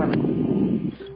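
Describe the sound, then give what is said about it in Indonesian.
A blower runs with a steady, low whooshing roar that holds level for about a second, then dips slightly and leaves a faint thin whine at the end. “ini ada suara blower iya, iya.”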